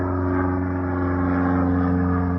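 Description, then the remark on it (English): A steady, loud engine drone with a low, harmonic hum that holds even throughout as a plane passes overhead, with no voices. “we'll let our plane go over.”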